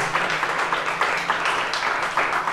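A church audience claps together for the Lord during a sermon in a dense, steady burst of applause, many hands at once with no pauses, loud throughout.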